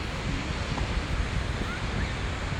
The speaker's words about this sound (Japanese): ちょっとねこのビーチの周りちょっと歩いてみたんですけどもね波に近いとすごい音がうるさくて反対に波の音がすごい雑音になっちゃうんですねなのでちょっと歩きながら一番いいとこ探してます